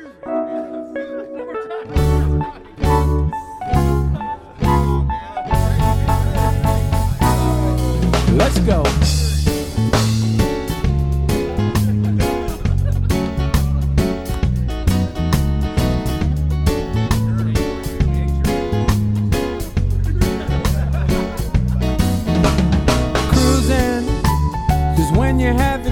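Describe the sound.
A full-band song by a local band, played on the Listen Local Radio Show, with a driving beat plays loud and continuous after a few choppy opening hits, and a voice briefly calls out near the start before the music takes over.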